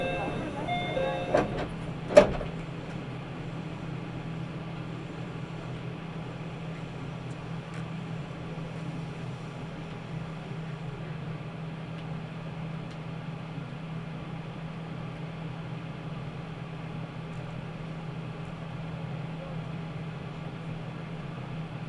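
A Nagoya Railroad Mikawa Line train in Japan, running from Chiryu to Hekinan, sits stopped at a station with its doors open. A steady, low engine hum runs throughout, and a brief sharp clunk sounds near the start.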